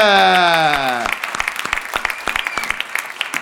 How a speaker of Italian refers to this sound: Un applauso a